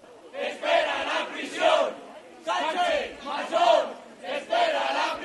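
A large crowd of protesters at a demonstration shouts in loud, rhythmic bursts, roughly three chanted phrases rising and falling, with many voices blending together and no clear individual words.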